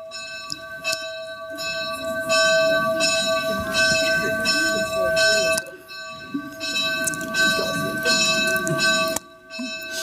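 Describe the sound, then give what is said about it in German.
A church bell strikes the hour, its loud, steady strokes ringing one after another so the bright, humming tones overlap, over a low background rumble. “Das ist jetzt auch das Signal, dass eine Stunde vorbei ist”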